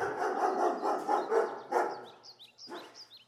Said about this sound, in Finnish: Mut pistetään vähän koiranhaukunta väliin.